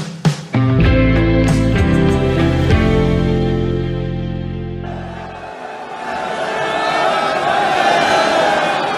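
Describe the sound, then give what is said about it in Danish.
A large crowd of expectant pilgrims, standing ready to bathe in the river Ganges, some bare-bellied and some wearing only a loincloth, shouts and screams in a dense, continuous roar, preceded by a few seconds of loud, sustained droning tones before the crowd noise takes over. “Det der, du kan høre her, det der, de her folk, der sådan råber og skriger her, det er simpelthen lyden af forve- forventningsfulde indre, der står klar til at bade i floden Ganges øh, med bare maver, nogle kun iført lindeklæde”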